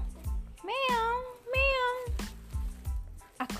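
animal, cat meowing

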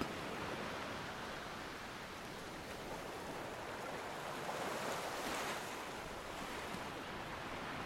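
nature, wind and ocean waves

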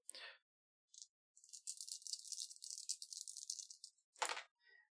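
household object, three dice being rolled

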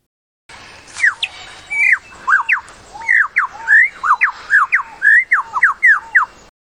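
bird, lyrebird call

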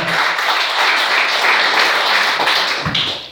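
crowd, audience applauding

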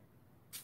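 household object, spray bottle spraying

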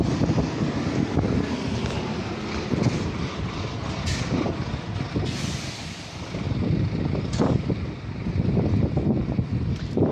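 nature, wind blowing on microphone

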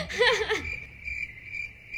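insect, cricket chirping sound effect

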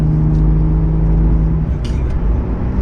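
vehicle, car engine accelerating

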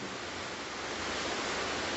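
nature, background rain

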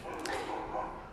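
animal, dogs barking

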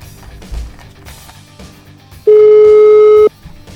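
signal or alarm, telephone call ringing

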